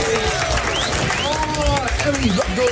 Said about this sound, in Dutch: Dames en zeggen, applaus!